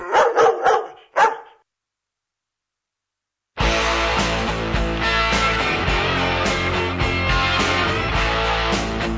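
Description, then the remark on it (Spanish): A dog barks sharply, a quick cluster of four barks and then one more, followed by a moment of silence before dense music starts playing. “el reconocido filósofo griego Heráclito escribió, Los perros ladran lo que no conocen.”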